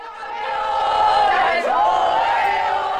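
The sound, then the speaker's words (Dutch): A large stadium crowd roars and cheers continuously as Spain becomes women's football world champion, a dense wall of voices that swells and holds loud for a few seconds, with no single speaker standing out. “En terwijl het feest losbarst en het publiek juicht, zien we op televisie hele ongemakkelijke dingen gebeuren.”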